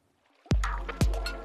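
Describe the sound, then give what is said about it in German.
Two heavy cannonball jumps into a swimming pool about half a second apart, each a deep, loud plunge followed by a rushing, churning wash that lingers. No voices are heard. “am Beckenrand im Freibad in der Sonne dösen, mit einem ordentlichen Platscher ins Wasser aufweckt. Mit der guten alten Arschbombe kann man besonders hohe und breite Fontänen erzeugen.”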